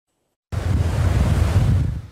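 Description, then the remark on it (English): After a moment of silence, ocean waves crash onto a beach in the city of Durban, South Africa, with a steady, loud rush of surf, carrying a broad low roar and some wind noise, with no one speaking. “The sea may look inviting, the sand a pleasant sight, but the beaches have been shut in the city of Durban, the tourists nowhere to be seen.”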